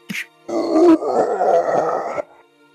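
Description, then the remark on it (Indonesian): A voice imitates a monstrous elephant screaming in pain after its trunk is bitten and torn off: a short sharp intake, then one long, loud, strained, roaring wail lasting nearly two seconds before cutting off. “Kamu mendengar siluman gajah tersebut berteriak-teriak. Dia begitu kesakitan dengan semua serangan bertubi-tubi dan kombinasi dari kalian berdua.”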